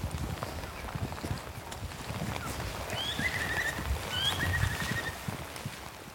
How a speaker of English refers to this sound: A bird call, the rain falling on the soft tundra. Somehow it's like the vastness actually makes it easier to notice the details.